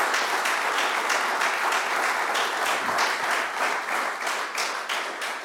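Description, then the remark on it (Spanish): A crowd claps in praise of the King (Christ), a dense wash of many hands with a loosely rhythmic pulse running through it, holding loud and even before easing slightly at the end. “Dele palmas al Rey.”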